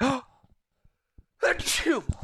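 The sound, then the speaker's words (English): A single forceful sneeze bursts out after a brief quiet pause with faint breaths, followed by a sharp intake of breath and some vocal noise. “I'm going to sneeze.”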